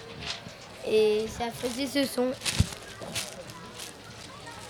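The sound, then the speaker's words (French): A short spoken phrase, then a burst of dry, crackling rustles as a piece of tracing paper is crumpled to make music, irregular crinkles continuing for a couple of seconds. “Est-ce que toi, tu peux nous présenter l'objet euh, que tu avais avec lequel tu faisais de la musique euh, J'avais un morceau de papier calque que je froissais”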